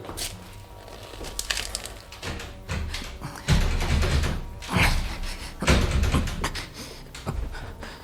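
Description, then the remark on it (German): A locked door's handle is rattled and the door is pulled and shoved several times, producing repeated heavy thuds and clanks in uneven bursts as it refuses to open. It is the only door of a room with no furniture and no windows. “Die, Sie ist verschlossen.”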